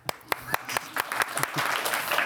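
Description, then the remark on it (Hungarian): A few scattered hand claps quickly build into steady, dense applause from a small group, moderately loud, with no one talking over it. “Tapsot.”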